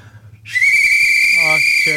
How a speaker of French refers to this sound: Je ben c'est pour faire le bruit. c'est ça qui fait le bruit. ben oui, on est des ah, experts en ah, sifflet,